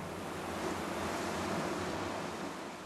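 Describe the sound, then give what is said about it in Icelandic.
Calm, mirror-flat sea water by Grímsey island washes and laps steadily near a boat, a continuous soft hiss of gentle waves with a faint breath of wind and no voices. “nú erum við statir hérna á speil slettum sjónum hérna við, við Grímseg.”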